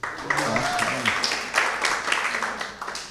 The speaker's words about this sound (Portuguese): Dá um aplauso para esse boi aqui.